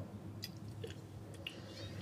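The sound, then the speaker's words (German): Soft, wet slurping of wine drawn through the lips during a tasting of a 2018 Meerspinne Grosses Gewächs from Weingut Christmann in the Pfalz, a few short airy sips at an uneven pace, quiet, with no talking. “Liebe Hörer, das dauert, die schlürfen noch.”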